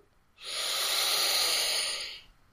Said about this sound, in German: Noch einmal durch die Nase einatmen.